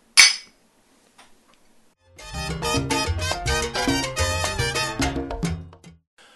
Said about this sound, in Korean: 힘내시라고 저희가 한 잔 드리겠습니다. 짠. 짠.